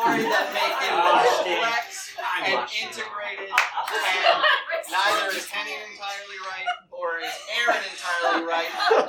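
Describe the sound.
A few sharp hand claps break through lively overlapping voices and chuckling, the claps loud but brief, mostly buried under the talk.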